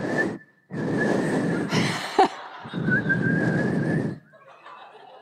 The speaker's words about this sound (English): Good whistling, everybody. I don't know how to whistle, so I'm always impressed when it happens.